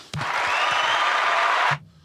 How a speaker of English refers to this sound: And hit that applause button.